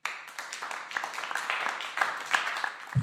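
Applause sound effect: a crowd clapping steadily with dense, crackling claps, fairly loud and continuous, ending abruptly with a brief low thump at the very end.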